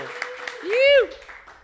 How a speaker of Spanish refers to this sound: Tenemos público aquí, tenemos fanaticada, todo el mundo, una fanática. Un fuerte aplauso.